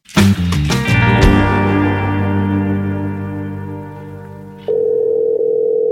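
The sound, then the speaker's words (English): A loud, steady electronic telephone ringing tone on an outgoing call drones with a slight echo, then shifts to a different, higher steady tone near the end. No one speaks. “is ringing”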